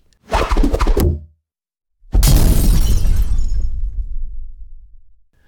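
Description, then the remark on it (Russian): A display stand, hit by thrown scoops, crashing down: a short clattering burst, a brief pause, then a loud, heavy crash with rattling and breaking debris that slowly fades over a few seconds. No voices. “Стенд такого не выдержал и рухнул.”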